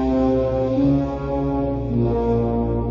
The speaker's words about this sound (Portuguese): vai ter que colocar essa, essa trilha sonora, porque é uma das trilhas sonoras também mais clássicas de filme. Uhum. É um. É tudo. tudo som de. de orquestra.